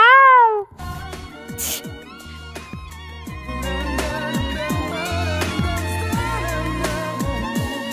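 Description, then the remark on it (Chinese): A single loud, drawn-out meow in a person's imitation of a cat's call after meeting a tomcat, wavering up and then down in pitch, is followed at once by steady, busy background music with a beat. “你学的那个声音是遇到了公猫，什么声音啊？”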